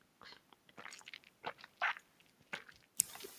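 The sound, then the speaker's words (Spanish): Someone sips water: a quiet run of short, wet mouth and swallowing sounds at an uneven pace, ending with a sharper click, with no talking. “Perdón, voy a ver un poquito de agua que me está secando la boca.”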